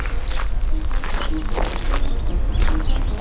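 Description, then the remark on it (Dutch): Scattered bird chirps and short whistled calls come from a few birds outdoors beside an old churchyard, over a steady low rumble of outdoor background noise. No one speaks. “Ja, je hoort de vogels fluiten.”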